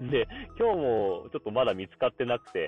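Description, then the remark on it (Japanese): A single voice speaks in short phrases with a muffled, thin tone, like speech over an old telephone line, lacking crisp high end and clarity; recorded with a substitute headset. “本当になんか昔の電話みたいなね、全然クリアじゃない、えー、電話の音みたいなね、えー、感じの音声で、これはこれでまあ味はあるんですけど、まあちょっとこれ、ポッドキャスト向きではないのかなと。”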